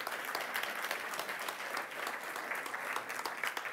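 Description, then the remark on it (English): A crowd claps steadily for a man who designed the graphics on the helmets, with dense, sustained applause filling the whole stretch at a moderate, even level and no voices standing out. “Can we give the man with the very nice shirt a round of applause because he's um, also designed this for us?”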